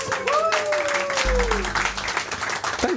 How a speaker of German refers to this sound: Herzlichen Glückwunsch. Einen großen Applaus